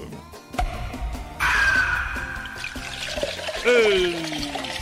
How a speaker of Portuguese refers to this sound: Deixa eu abrir uma cervejinha aqui, rapaz, um capricho.